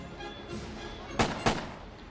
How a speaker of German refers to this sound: Denn nun fallen die Schüsse von Sarajevo.